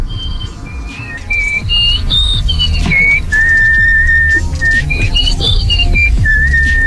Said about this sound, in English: it would be great if he broke her world record someday for nose whistling at 44.1 decibels